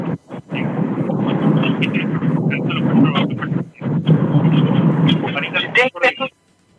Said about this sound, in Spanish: Te, escuché como debajo del, de, del mueble. El ruido de tu auto. El ruido de mi auto. Sí, perdón, disculpen.